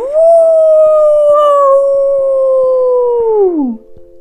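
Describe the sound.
A human voice imitates a wolf's howl, as the character Lupman howls together with young wolves at a wolf school: one loud, long, steady note held for several seconds before sliding downward and fading out, with no other sounds around it.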